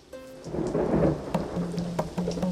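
A rumbling thunderstorm with steady rain, low thunder rolling continuously beneath the patter of raindrops, fairly loud throughout the short stretch with no voices.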